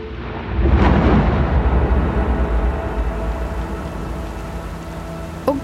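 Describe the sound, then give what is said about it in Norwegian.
A rumbling thunderclap rolls in near the start over steady rain and a deep low roar as a storm's wind and waves batter a ship at sea. The storm noise then continues as a dense wash, fading slightly toward the end. “Det blåste nemlig opp til uvær. Vinden og bølgene herja med skipet.”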